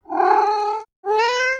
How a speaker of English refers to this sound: Yes, it's a cat meowing.